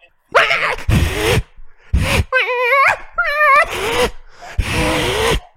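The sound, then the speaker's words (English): A person's voice mimics cats, with wavering meow-like wails, breathy hisses and snarling bursts in quick succession, loud, like a brief scrap between several cats. “I was trying to make it sound like many cats fighting”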